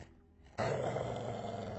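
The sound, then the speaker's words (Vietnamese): A dog breaks into a loud, sustained growl after a brief quiet moment, a rough rumbling snarl that continues steadily to the end, as it stares at a rocky mound of earth at night. “con chó đổi dòng sang gầm gừ.”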